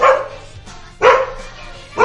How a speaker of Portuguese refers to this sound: Ai, Meu Deus. Ah, acordou madruguinha. Tia, desculpa, cachorro. Vai deitar, cachorro. Vai, vai deitar, cachorro.